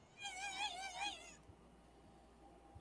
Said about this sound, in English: There weren't any bugs, so I brought this electronic fuck noise maker.